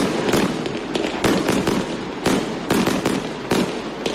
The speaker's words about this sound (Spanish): Claro, y vamos a bajar esto rápidamente, no vaya a ser que algún perrito o perrita nos esté escuchando, se asuste o alguna persona con sensibilidad especial pues se asuste al escuchar el estruendo de los petardos.